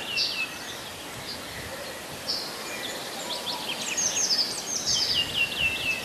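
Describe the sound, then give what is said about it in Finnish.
A European robin sings thin, high, twittering phrases in short bursts, clearer toward the end, over a steady soft hiss of outdoor background noise. “Punarinta tässä.”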